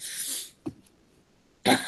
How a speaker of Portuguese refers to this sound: Deixa eu dar uma tossidinha aqui, que eu tava me prendendo pra não tossir na hora que tu tava gravando.